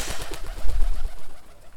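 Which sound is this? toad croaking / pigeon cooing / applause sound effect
pigeon cooing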